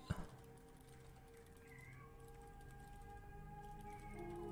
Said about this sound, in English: Also, I'm so sorry that you can hear my cat, everyone. he was fine was until just now.